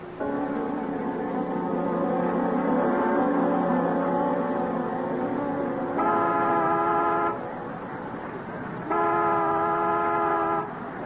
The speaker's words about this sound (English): And if one of us is late, honk the horn as a reminder. Make it two long, one short. Got that?